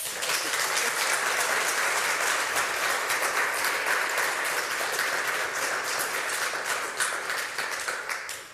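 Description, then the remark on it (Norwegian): An audience claps steadily for several seconds, a dense, even wash of many hands with no pauses, holding at a fairly loud level before tapering slightly at the end. “Applaus.”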